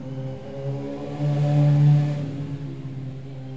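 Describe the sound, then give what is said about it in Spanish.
A motorcycle passes at nearly 200 per hour in front of Casa Flor de Loto, heard through open windows, its buzzing hum swelling louder for a moment near the middle and then easing off as it speeds away. No one speaks. “Acaba de pasar una motocicleta casi a 200 por hora.”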